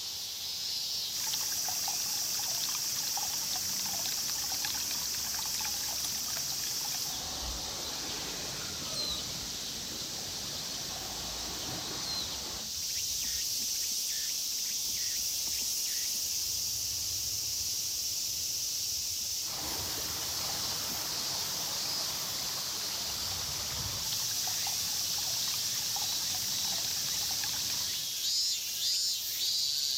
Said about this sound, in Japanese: 雨もいいですよね